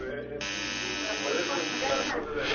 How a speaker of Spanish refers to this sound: En eso sonó el timbre.